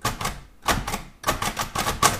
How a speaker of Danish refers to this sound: Det er, det er, en, det er en blindeskrift skrivemaskine, kan man sige, ja. Og øh, da, da selve punktskriftsystemet består af seks prikker, så har jeg øh, en tast til hver prik, og det vil så sige, at jeg kombinerer efterhånden, som jeg skriver.